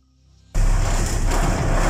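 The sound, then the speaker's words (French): After a half-second of faint low hum, a loud, constant engine roar kicks in abruptly, a heavy rumbling drone of a cruise ship's engine heard from a cabin right next to the engine. “Écoutez bien, elle est collée au moteur.”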